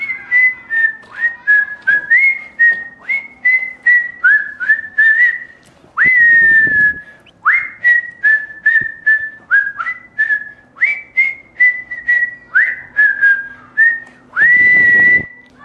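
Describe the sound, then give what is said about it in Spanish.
A person whistles a long run of quick, chirpy bird-like phrases, performing a whistled concert of birds: rising slides and trills repeating in bursts with brief pauses, loud, imitating birdsong with no talking. “soy el hombre pájaro y soy muy silbete y voy a hacer un concierto de de pájaros.”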